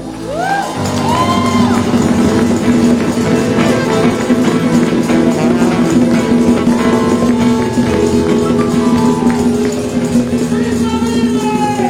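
crowd, audience applause and cheering

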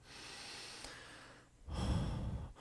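human body sound, deep breath

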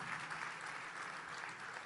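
crowd, audience applause

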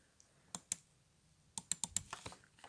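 household object, computer mouse clicking

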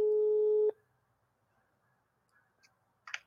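signal or alarm, telephone line tone

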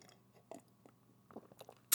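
food or drink, sipping tea

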